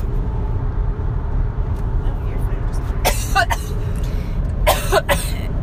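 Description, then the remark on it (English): Two harsh bursts of coughing and throat clearing from a woman in a car while driving, each a quick cluster of rough hacks, set against a steady low rumble. “Excuse me, I'm going to cough.”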